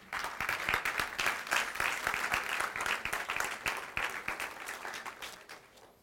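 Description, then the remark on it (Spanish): A church audience, standing, applauds the Lord together, a dense, steady wash of many hands clapping for several seconds before gradually thinning out toward the end. “Damos un aplauso al Señor, amén.”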